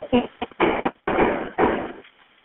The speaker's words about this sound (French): Écoutez bien ça, c'est tellement troublant parce qu'on entend euh, les coups de feu, là. Écoutez ça.